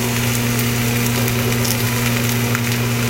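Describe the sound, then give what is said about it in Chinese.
Zucchini being dry-fried in a pan for lunch: a steady, dense crackling hiss with faint pops throughout, over a constant low hum, no one speaking. “櫛瓜干煎超好吃的，听听这个声音”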